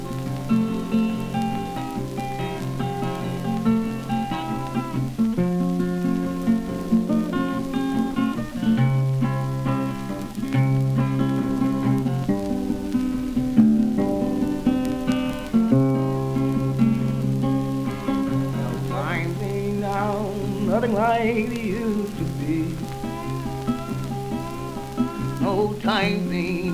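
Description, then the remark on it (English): An early blues recording: a plucked guitar picks steady bass notes and ringing melody lines over a constant hiss and crackle, and a sung voice joins toward the end. “Let's listen to an early blues recording.”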